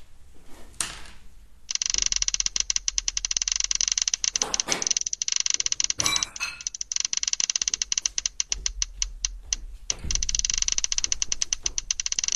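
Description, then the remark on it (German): A prize wheel spins with a rapid stream of loud clicks that gradually slow and space out as it winds down, with a few brief knocks along the way. “Schmeiß nur mal kurz das, das Glücksrad an.”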